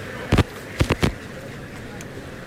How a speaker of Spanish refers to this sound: Monta la vara Jabato Hijo y tira hasta la primera raya de picar. Paso atrás, ahí oímos el trasiego del caballo.